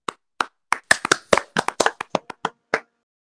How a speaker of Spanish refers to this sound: Un aplauso.